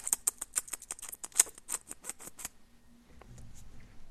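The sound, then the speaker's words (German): A voice imitates a tiny bee-milking machine with a fast run of sharp, dry clicks and ticks, fairly loud, lasting a couple of seconds before fading into quiet. “Man muss Bienen melken. Mit so kleinen Melkmaschinen. Ich mache jetzt eine Umschulung, so einen Bienenmelker. Das ist das Geräusch, was das dann macht, so.”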